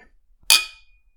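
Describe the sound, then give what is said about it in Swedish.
A single clink of drinking glasses touching in a toast: one sharp, bright tap followed by a thin ringing tone that fades within about half a second, with no voices. “Dåligt klinger man glasen.”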